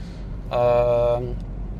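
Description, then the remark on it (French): Steady low rumble of a car interior while driving, continuous throughout, with a brief sustained vocal sound from someone inside partway through. “Je me suis dit, tiens, bah, profite que tu es en voiture pour euh, balancer ce que tu as à dire euh, en 5 minutes et puis ça prend un peu plus.”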